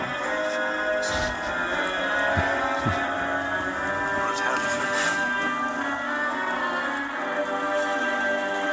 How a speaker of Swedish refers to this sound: Ja, det, var så, det var så otroligt deppig musik. Så jag började, jag började, jag började skrika. jag började skrika.